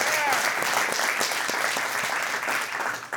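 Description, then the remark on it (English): A Sandals Church audience claps steadily and loudly for what God is doing through the church, a dense wash of overlapping hand claps with a few cheers mixed in, holding at full strength for about three seconds before easing slightly at the end. “Um, come on, let, let's all just give a big round of applause for what God is doing all over the world through Sandals Church.”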